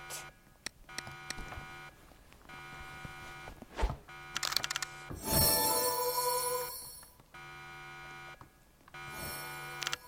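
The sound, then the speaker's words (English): An electronic alarm keeps ringing and buzzing in steady tones for the whole stretch, broken by a few sharp thumps and a louder burst of noise midway, with no one talking. “Our alarm is going off.”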